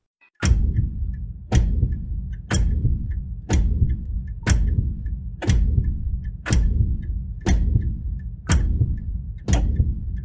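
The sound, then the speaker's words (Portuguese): A clock ticks loudly and steadily, one sharp tick each second for about ten beats, each followed by a low resonant ring. No voices are present. “calma, calma, calma, calma, calma, me deu coisa aqui, ó antes do relógio voltar.”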